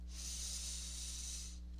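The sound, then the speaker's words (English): One long, airy deep breath in and out, a steady breathy hiss lasting over a second before fading out, with a low electrical hum underneath and no talking. “One more deep breath.”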